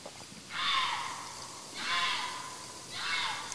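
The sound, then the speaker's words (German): A fox screams three times in a row, each raspy, drawn-out shriek lasting about a second with short pauses between, loud with no other sounds around it. “Hier schreit jetzt offensichtlich ein Fuchs.”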